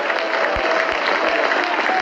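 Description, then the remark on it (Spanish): Sustained applause from an audience, clapping for Christ, a dense continuous wash of clapping at steady loudness with no pauses, filling the whole moment. “Dale fuerte ese aplauso al Cristo de la gloria.”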